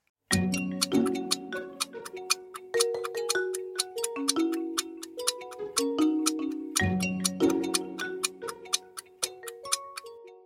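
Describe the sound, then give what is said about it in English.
A 10-second countdown clock for a math puzzle ticks in a steady, brisk rhythm over a tense looping music bed, fairly loud, running continuously with no one speaking. “10 seconds are on the clock.”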